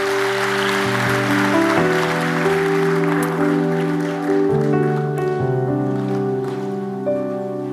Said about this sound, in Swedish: Så vi kan ge min bror en applåd, sen kan vi alla bara ställa oss upp.